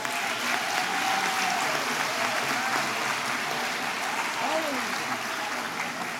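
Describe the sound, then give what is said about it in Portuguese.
An audience applauds steadily for several seconds, a dense, even wash of clapping hands with a few brief voices rising faintly underneath, as audience members turn to the person beside them and give them a round of applause. “Vire pro seu irmão, dê uma salva de palmas para ele aí, ó.”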